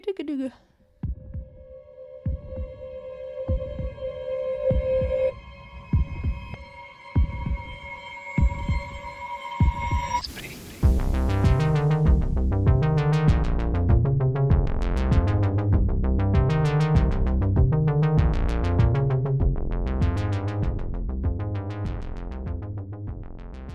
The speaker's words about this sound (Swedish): Vi tar ett fall. Här kommer jingel.